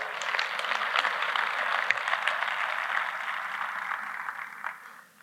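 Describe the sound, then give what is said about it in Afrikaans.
An audience claps for a man who has twice completed the Comrades run, a dense crackle of many hands at a fairly even level throughout, thinning out and fading in the last half second. No one speaks over it. “Ons gee 'n bietjie vir daai man 'n hande klap.”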